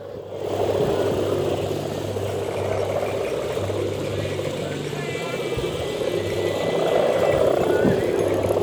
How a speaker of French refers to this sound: Alors je vais vous donner euh, un aperçu d'une harpe géante.